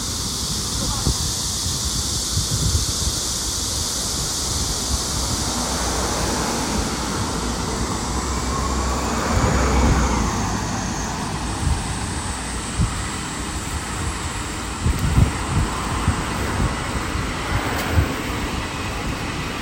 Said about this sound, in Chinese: 然后接下来呢是一段简单的声音，就是我在上海的新华路，就在上面闲逛的一段时间，然后周围的长鸣的声音，还有车流的声音，让我走在路上的时候感觉到到非常的舒服。